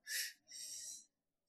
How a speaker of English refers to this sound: So then you take this breath in, it's two breaths in, you go.